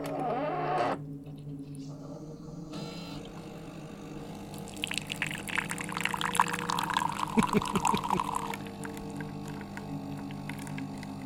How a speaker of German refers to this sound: Ich untersuche die Kaffeemaschine. Du machst ja einen Kaffee.